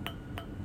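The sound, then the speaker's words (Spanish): Three light, bright clinks of glasses with ice touching, spaced evenly about a third of a second apart, fairly quiet over a low room hum, as in a toast. “Salud, Saludcita.”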